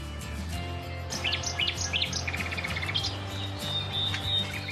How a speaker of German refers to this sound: Es scheint sich um zwei Nachtigallmännchen zu handeln, die sich gegenseitig Konkurrenz machen.